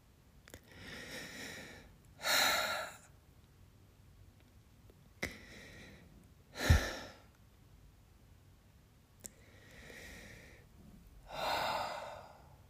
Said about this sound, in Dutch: je hoort mij nu ademen. Ik heb, uh, ligt een hand op mijn hart. En dan lopen die tranen over mijn wangen.